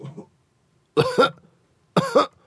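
Two deliberate, close-up coughs about a second apart, each a short double burst, like someone forcing or mimicking a cough, with a faint murmur just before.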